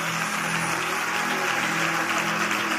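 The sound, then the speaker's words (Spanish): A crowd applauds steadily in worship, in homage to the Holy Spirit, a dense, even wash of many hands clapping at once with no pauses, with a faint low hum or tone running underneath. “Que ese aplauso sea más fuerte.”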